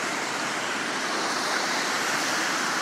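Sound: city street traffic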